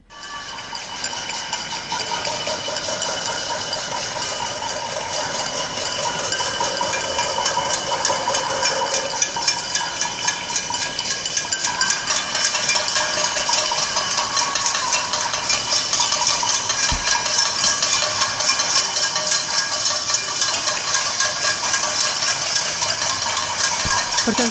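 A street pot-banging protest (panelaço) in the Jardins district of São Paulo, Brazil: a dense, continuous clatter of many pots and pans struck at once, blending into a steady metallic din that holds at an even loudness throughout, with no clear speech.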